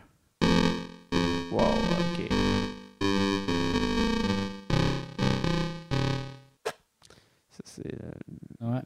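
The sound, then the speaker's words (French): Electric guitar run through a harsh crusher effect: a string of loud, gritty sustained chords with abrupt cut-offs, then a few broken, sputtering fragments toward the end. “Oh ouais, sinon on a quoi? Le Crusher.”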